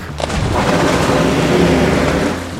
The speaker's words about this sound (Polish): Cisza przerwał wielki plusk.